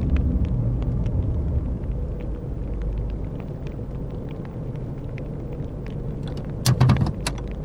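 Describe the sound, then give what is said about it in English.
A pickup truck's engine rumbles low and steady as it rolls into a parking lot and settles by some trees, away from a fire, then a brief cluster of sharp metallic clicks and rattles near the end as it parks. “Park by those trees, away from the fire.”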